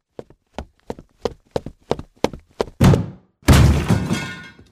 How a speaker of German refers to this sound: Mit einem lauten Knall landete die Tür dann auf dem Steinboden. Der Krach schreckte jetzt eine ganze Horde von Untoten auf, die sich auf den Weg zu den Abenteurern machten.